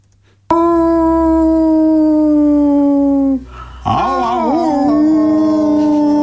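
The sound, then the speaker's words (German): Human voices imitate wolf howling: one long, steady howl that slowly falls, a brief pause, then two voices howling together as a duet in wavering, overlapping tones, loud. “Stimmen gemeinsame äh, stimmen gemeinsam Wolfsgeheule an.”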